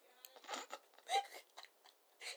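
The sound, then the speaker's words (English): Someone imitates popping chewing gum with their mouth: a run of wet, smacking chews with one sharper, louder pop near the middle, then a few more soft smacks. “And there's Bernie lying on the couch, drinking a beer and chewing. No, not chewing. Popping.”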